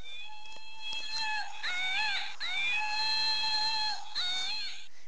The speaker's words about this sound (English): What's that? It's a monkey.